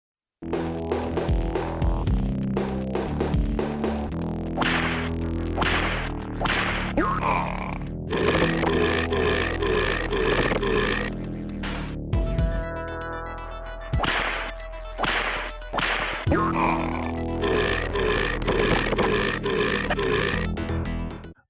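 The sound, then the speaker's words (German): Loud, repeated burps and fart noises from a jump-and-run video game, bursting out in quick succession over busy, upbeat background music, with no one talking. “Also auch wenn Rülps und Furzhumor genau mein Humor ist.”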